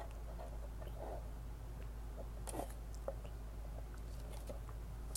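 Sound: drinking water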